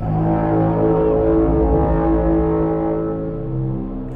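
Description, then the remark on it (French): A deep, droning bass horn blast of alien spaceships arriving holds steady for about four seconds, loud and sustained with rich low harmonics and massive sub-bass, slowly easing off toward the end. No voices are present. “quand les vaisseaux arrivent, ça fait une espèce de. Et à un niveau de bas, c'est des subs monstrueux”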